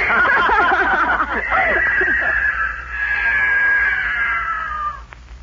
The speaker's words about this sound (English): The mountain lion. He's going into the woods.